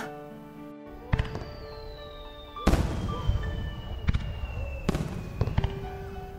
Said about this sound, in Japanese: あ、花火始まった。早く行こう。